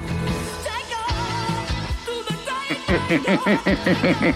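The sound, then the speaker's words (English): A theme song is played down a phone line on its own, with a sustained melodic line that gives way to bouncy, rhythmic repeated notes toward the end, fairly loud and with no one talking over it. “can you hear your theme song now?”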